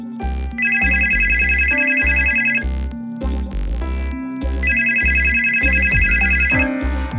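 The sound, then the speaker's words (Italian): A telephone rings twice in steady electronic bursts, each lasting about two seconds with a pause between, loud over a low, rhythmic musical background, as an evening call is put through to a magistrate. “Quella sera, come altre volte, gli viene passata una telefonata.”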